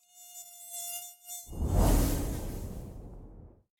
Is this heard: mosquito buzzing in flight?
yes